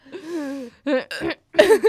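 A person hiccups. A drawn-out voiced sound is followed by a few short, abrupt vocal jolts, loud and separated by brief silences, with no clear speech.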